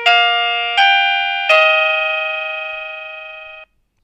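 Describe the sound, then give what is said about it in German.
A wireless doorbell plays one of its selectable melodies, a three-note electronic chime, each tone striking in turn and the last one ringing out and slowly fading before cutting off. Loud and clear, with no voices. “einfach den zweiten Knopf nochmal drücken solange bis ihr die Melodie habt, das Klingeln, was ihr haben möchtet”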